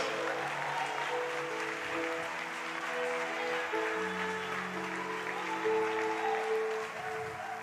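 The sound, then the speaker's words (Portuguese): A church audience applauds steadily for several seconds during a sermon, a dense wash of clapping that stays loud throughout, with sustained organ-like tones humming underneath. “Aplauda direito aí, pelo amor de Deus.”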